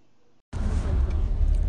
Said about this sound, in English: So here I am in the car